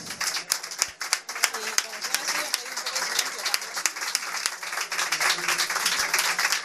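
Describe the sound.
An audience applauds steadily for a guest singer on a music programme, a dense crackle of many hands clapping at an even loudness, with faint crowd voices mixed in underneath.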